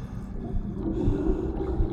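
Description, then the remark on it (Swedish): Something stirs and churns through water right outside a door, with a low, murky sloshing that swells and eases continuously over two seconds, muffled, with no voices. “Något stör runt i vattnet.”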